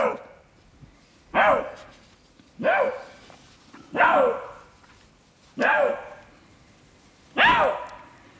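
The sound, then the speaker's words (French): A lynx gives five loud, harsh calls at a steady pace, each a bark-like yowl that bends into a meow-like wail, with quiet pauses between and no talking. “C'est vrai qu'on dirait un peu un chien au début, mais finalement, si on écoute bien, ça fait aussi comme un miaou.”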